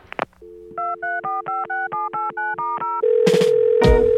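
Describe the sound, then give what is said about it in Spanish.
A telephone receiver clicks up to a steady dial tone, followed by about ten quick, evenly paced keypad beeps, then a louder line tone with bursts of static. No one speaks. “Suena el teléfono.”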